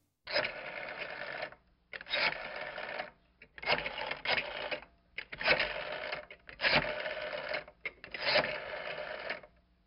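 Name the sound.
telephone ringback tones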